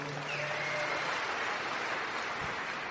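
A crowd applauds with dense, steady clapping that fills the whole three seconds as a continuous wash of noise, no single claps standing out.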